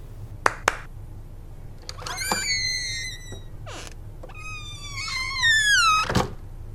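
A door swings open with a long, squealing hinge creak in two drawn-out passes. Sharp latch clicks come at the start and a clear, solid thump at the end.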